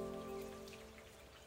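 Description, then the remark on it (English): Steady, quiet rain patters down on a surface on a foggy morning, a soft continuous spray of drops with a faint low hum running beneath it and no voices. “We're both early risers, so on this foggy, rainy morning, with her coffee in hand, we get straight to it.”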